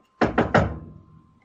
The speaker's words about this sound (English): Nice. Who did that? That was amazing. Well, it wasn't that amazing, but that was me. It saved me some trouble. Thank you. yeah. Wow, it sounded so good. Were you knocking on a real door?